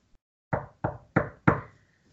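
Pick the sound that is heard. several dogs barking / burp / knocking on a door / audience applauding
knocking on a door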